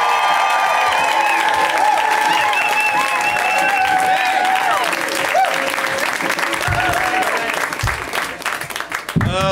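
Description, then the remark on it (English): A loud, sustained burst of show audience applause with whoops and cheers, welcoming comedian Kevin Avery on his first time on the show; a dense roar of clapping that holds steady for several seconds before a voice begins to break through near the end. “It's their first time on the show, and whenever it's somebody's first time on the show, we go wild. We welcome them with extra energy.”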